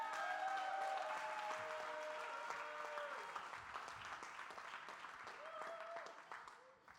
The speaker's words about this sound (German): Können wir den beiden nochmal einen Applaus geben an der Stelle?